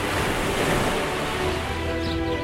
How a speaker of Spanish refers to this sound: Cierra los ojos e imagina el agua salada rozando tu piel en una playa kilométrica.